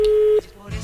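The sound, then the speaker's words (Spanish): A steady, mid-pitched telephone line tone from a call being placed to a man in Las Palmas holds loud and unbroken for under half a second, then cuts off, leaving faint low murmuring and line noise. “Ahí estamos llamando al señor de Las Palmas.”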